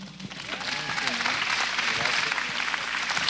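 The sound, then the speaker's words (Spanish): A crowd claps steadily for a few seconds, a dense wash of hand claps with a few scattered voices calling out underneath. “Bien, pues denles un aplauso.”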